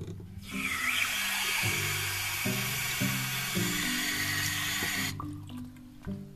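Water gushes steadily from a tap in an old house for about five seconds, a loud hissing stream over a low, wavering hum from the pipes, then cuts off abruptly. No one speaks.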